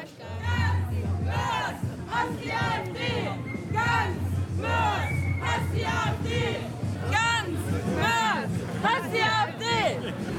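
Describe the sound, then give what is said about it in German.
A large crowd at an anti-fascist demonstration march chants slogans in loud, rhythmic unison, voices rising and falling in repeated bursts over a constant low hum, filling the scene for the whole stretch. “Man kann sich übrigens an Chören beteiligen.”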